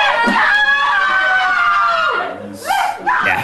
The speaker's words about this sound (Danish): det er altså hjemme hos George Floyds familie, den afdøde sorte mand, som blev dræbt i Minneapolis, og de kan høre familien jubler helt vildt, øh, da den her betjent øh, Chauvin hedder han til efternavn, at han simpelthen bliver dømt.